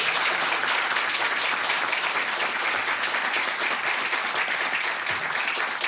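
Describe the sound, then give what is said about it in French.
A room full of people claps steadily and enthusiastically, a dense, sustained wash of applause at even loudness throughout, with no talking over it. “j'envoie notre soutien à l'ENA Situation et j'aimerais qu'on l'applaudisse pour lui donner la main.”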